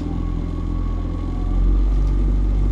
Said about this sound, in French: Bon allez, pour moi aussi, il est temps d'embarquer, c'est un peu plus facile par contre. Je rejoins mon pilote dans son bateau moteur